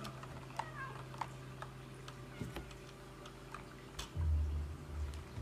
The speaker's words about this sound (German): Ich muss miauen.